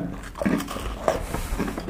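Someone bites into a crunchy cookie and chews, producing a few short, crisp crackling crunches at an uneven pace, fairly quiet, with no talking.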